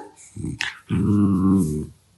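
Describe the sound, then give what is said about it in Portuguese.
A female dog whimpers: a short huffing burst, then a sustained, tonal whine lasting about a second before fading out, with no talking. “Pronto, a minha cadela está-me a tentar matar.”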